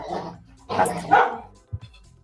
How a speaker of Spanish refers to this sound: Perdón, mis perros están peleando.